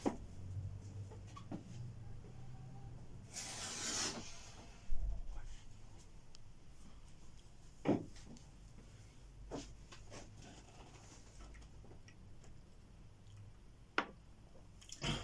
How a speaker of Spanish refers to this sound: Deja cierro la puerta.